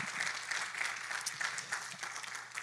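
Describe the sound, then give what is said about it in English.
Audience applause for a man and his bride fills the whole stretch, a dense steady patter of many hands clapping at an even, fairly loud level, with a faint low hum underneath. “as an evangelist, I can say this don't clap for them, give them a raise.”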